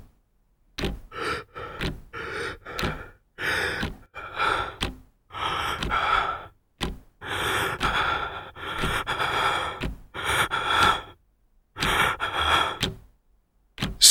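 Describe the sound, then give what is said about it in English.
Someone gasps for breath again and again, ragged heaving inhales and exhales coming in quick uneven bursts, fairly loud, with no talking. “I sit up, gasping for breath.”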